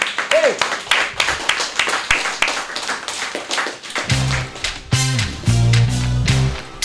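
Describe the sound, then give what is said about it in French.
An audience applauds with a dense, steady crackle of many clapping hands; partway through, low sustained musical tones rise up beneath the clapping and continue to the end. “Bon, mais et eh, on les applaudit quand même.”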